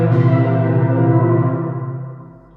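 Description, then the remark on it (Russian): A short musical sting of bright, bell-like tones rings out as a sustained chord, then gradually fades over a couple of seconds, with no voices. “Парам-пам-пам-пам, музыкальная отбивочка.”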